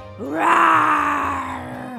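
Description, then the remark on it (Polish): A single loud, sustained vocal roar lasting about two seconds, as a person mimics an animal after taking a breath and closing their eyes, trying to scare a friend. It swells quickly, holds steady, and tapers off at the end, with no talking. “Lolek nabiera powietrze, zamyka oczy i wydobywa z siebie głośne”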